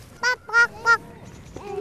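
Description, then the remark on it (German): Ducks swimming on a lake quacking: three loud, nasal quacks in quick, even succession, followed after a short pause by a softer, drawn-out call. “Nur ein Schwimmschwan. Äh, äh, Enten, ganz richtig,”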